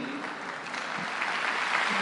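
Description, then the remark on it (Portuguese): Steady audience applause at a Mother's Day gathering, a dense crackle of many hands clapping that holds at a fairly even loudness and swells slightly toward the end, with no voices standing out. “É isso aí, tem que aplaudir, né?”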